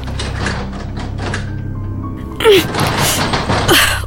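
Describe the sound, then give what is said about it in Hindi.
A very old, large carved wooden wardrobe door, long jammed, is tugged in an attempt to open it: after a low steady rumble, a sudden loud rattling burst comes with a short creak, followed by a second creaking jolt. “मैं उस ओर बढ़ी और मैं एक बहुत पुरानी लकड़ी की कार्विंग की हुई ह्यूज अलमारी के सामने खड़ी थी आवाज़ शायद उसी में से आ रही थी मैंने उसे खोलने की कोशिश की”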